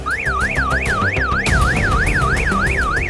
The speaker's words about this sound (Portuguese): Teve uma noite lá que ela estava sozinha e escutou o alarme da garagem disparar.